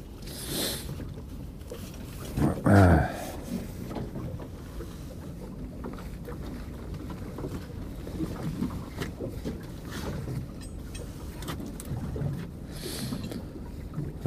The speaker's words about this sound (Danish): Se nu kan man se ankeret komme op af vandet her.